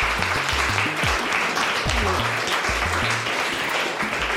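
Steady applause from an audience for an editor sitting in the front row, a dense wash of many hands clapping at a constant loudness throughout, with low murmurs and voices faintly underneath.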